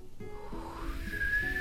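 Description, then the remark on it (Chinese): A faint, breathy mouth whistle that slides upward and then holds one steady, high note for about half a second. No one speaks. “我会我会口哨哎，但是我只会吹一个音， 嗯 而且我还要调试一下。”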